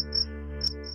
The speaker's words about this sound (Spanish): En la noche se escuchan los grillos cantar,